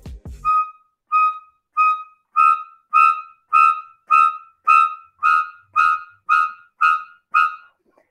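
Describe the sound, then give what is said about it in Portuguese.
Shrieking string stabs from the score of Hitchcock's film Psycho, for the shower murder scene: three chromatic notes, E-flat, E and F, in about thirteen sharp, high-pitched bursts repeating in a steady, insistent rhythm, growing louder after the first few, with no voices. “ele é o autor dessa trilha aqui de Psicose, né, a clássica”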